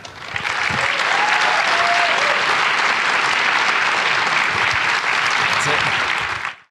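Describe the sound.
An audience at Recovery Reinvented claps steadily for several seconds to welcome a guest, a dense, loud wash of applause that swells quickly, holds evenly, then cuts off, with a faint voice briefly audible underneath.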